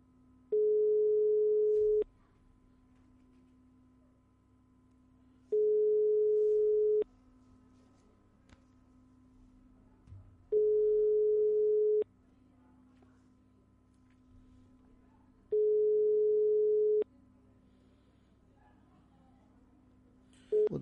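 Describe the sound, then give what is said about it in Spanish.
A telephone ringback tone on an outgoing call placed live on a radio broadcast: four steady electronic tone bursts of about a second and a half each, spaced by pauses of roughly three seconds, with a faint continuous hum underneath. “Y vamos con el último intento, otra llamada.”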